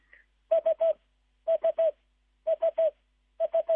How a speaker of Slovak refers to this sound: Také trojslabičné, nedá sa s ničím pomýliť, takže keď to budeme počuť, tak nejde žiaden vlak z diaľky, ale to Duduk ohláša, že tam má svoj dvor alebo svoj rajón.